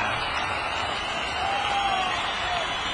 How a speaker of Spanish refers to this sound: Fuerte los aplausos para nuestros amigos de NC Beauty Spa.